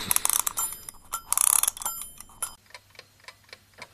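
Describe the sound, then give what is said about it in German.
A wind-up alarm clock, just wound up, rings in a loud, rattling metallic burst, then falls quiet to a steady, crisp tick-tock at a quick, even pace. “Dann äh, werde ich den Wecker aufziehen nehmen.”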